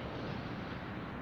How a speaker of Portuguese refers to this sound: Galerinha, também preciso pedir desculpa pelo barulho dos carros e pedir desculpas pelo barulho dos ventos. Não é minha culpa, tá ok? Apesar de eu estar num local até bom para a gravação, algumas surpresas podem ocorrer.